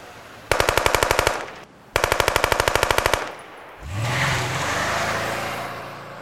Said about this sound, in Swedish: Det är ju ett automatvapen som används och då blir det ju många skott på kort tid. Det här går ju jättefort.